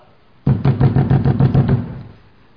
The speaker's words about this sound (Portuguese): Quando foi de madrugada, bate na porta.